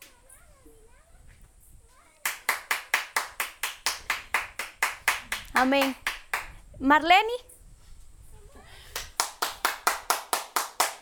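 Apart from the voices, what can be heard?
audience clapping hands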